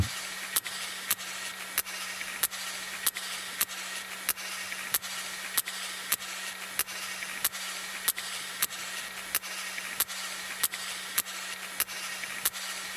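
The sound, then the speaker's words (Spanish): Sperm whale coda clicks exchanged between several sperm whales communicating: sharp, dry clicks repeating at a fairly steady pace, roughly two per second, over a constant wash of hiss and a low, steady hum. No one speaks. “Vamos a poner el tercer ejemplo que os mandé, son el que dice comunicación entre cachalotes, que sería estas codas, ¿no?”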